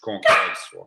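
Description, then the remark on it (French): A single sharp bark from the speaker's female dog rings out, cutting loudly across someone talking, then quickly fading back under the voice. “C'est mon chien, excusez-la.”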